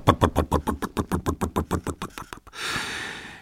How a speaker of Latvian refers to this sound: Izmetis no izpūtēja multeņu cienīgu dūmu mutulim motors iedarbojās. Izdevās! Motors ir pielecis un nu jau rukšķēja ar savu parasto skaņu, kā jau kārtīgs vecis.